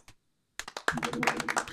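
Applause starts after a short pause with a few separate claps, then quickly thickens into steady, fairly loud clapping that continues to the end.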